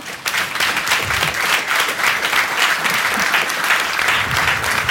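Sustained applause from a live audience welcoming the show's justice expert and lawyer, a dense, steady wash of many hands clapping at an even loudness for the full five seconds, with no voices over it.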